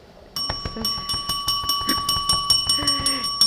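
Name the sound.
hand bell being rung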